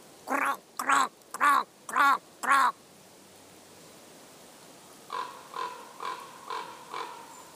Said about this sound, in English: It was in the winter, and the snow was on the ground, and I started to call a Gallic raven call into the forest. Not expecting anything to happen, but then a raven began to call back to me and flew closer and closer.